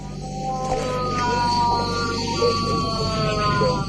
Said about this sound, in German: Alexei Nawalny hat inzwischen das Bewusstsein verloren. Auf einem Video, das ein Passagier mit dem Handy aufgenommen hat, hört man Nawalnys todesnahes Aufstöhnen.